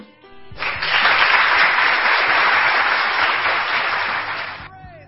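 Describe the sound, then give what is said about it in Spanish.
A burst of steady applause from a group for Marta Corredera, the FC Barcelona football player, swells in quickly, holds loud and even for about four seconds, then fades out, with faint voices at the start and end. “Claro que sí, aplausos para Marta Corredera, la jugadora del Fútbol Club Barcelona, habitual también en este 11 ideal por ese gol que consiguió”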